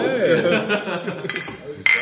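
Laughter and chatter fill the moment, then glasses clink together once in a toast near the end, a bright ringing tap that hangs briefly in the air.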